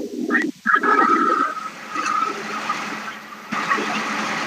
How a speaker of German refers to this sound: Da fährt jemand Auto.